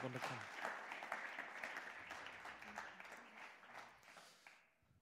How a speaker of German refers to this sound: Wir geben euch nochmal einen großen Applaus. Danke, dass ihr da seid und da wart.